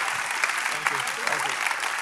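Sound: audience applause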